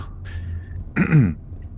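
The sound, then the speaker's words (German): A single short, gruff throat clearing, fairly loud, lasting about half a second against a quiet background with no talking. “ich räuspere und zische Werner Nickel zu”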